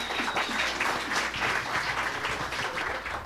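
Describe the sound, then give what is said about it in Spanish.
An audience applauds steadily, a dense wash of many hands clapping at an even, sustained loudness without any voices over it. “Así que, tenemos un aplauso”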